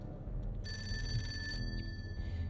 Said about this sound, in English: As she passed the office, she heard the phone ringing.